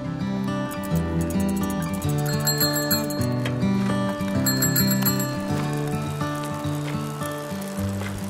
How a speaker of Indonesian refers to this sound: Demikian bunyi bel sepeda menandakan keriuhan kawasan parkiran. Para pesepeda berdatangan sejak pagi hingga siang hari dari arah kota Yogyakarta, Jalan Imogiri Timur, dan Jalan Imogiri Barat, banyak rombongan pesepeda yang menuju tempat itu.